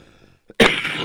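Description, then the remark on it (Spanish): After a short quiet stretch, a small catch of breath leads into one loud, harsh cough that bursts out suddenly and trails off raggedly. “Así es, cobra fuerza entre los mexicanos como algunas toses que nos dan a todos nosotros por acá.”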